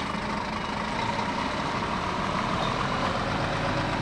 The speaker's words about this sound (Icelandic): þetta er ekki smá trukkur sem er þarna.